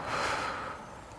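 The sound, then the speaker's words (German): A single long, breathy exhale following a deep breath in through the nose during a guided relaxation exercise, a soft airy whoosh that swells early and then gradually fades away, with no talking. “Lehn dich entspannt zurück, schließ die Augen oder such dir einen Punkt im Raum, wo du was Schönes siehst und dann atmen wir mir einmal tief durch die Nase ein und wieder aus.”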